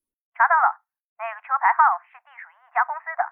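A mobile phone belonging to Ye Yihui rings with a bright, melodic ringtone: a short burst of notes, a brief pause, then a longer run of warbling, mid-pitched tones at moderate volume. The call is from a criminal police team colleague.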